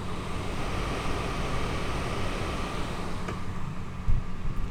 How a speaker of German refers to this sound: So, das habt ihr jetzt wahrscheinlich verstärkt gehört. Hier ist irgendwie so eine Klimaanlage in der Wand eingelassen und die rauscht die ganze Zeit.